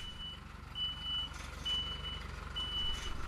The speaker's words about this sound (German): Ich stehe an einem Mittwochmittag an einem Parkplatz im Dresdner Vorort Großschachwitz. Umgeben von Mietshäusern, sechs Stockwerke hoch, ein typisches Dresdner Wohngebiet. Vorsichtig rangiert der marineblaue LKW, verziert mit attraktiven Grafiken